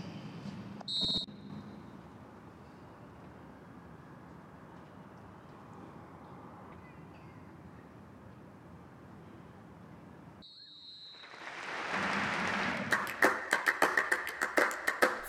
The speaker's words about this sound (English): Our referee today, Sebastian Stockbridge, will blow a whistle to start and end the minute's silence.